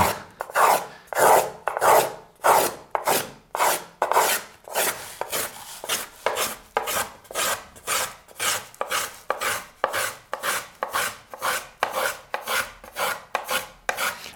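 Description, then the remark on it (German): A small arching plane shaves the wood of a violin top in a steady rhythm of about two strokes per second, each pass a bright, breathy rasp, clear with no talking. “Also durch diese Arbeit mit dem Wölbungshobel passiert am meisten Handschrift.”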